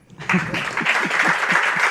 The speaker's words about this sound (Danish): Tak. tak og klap af dem.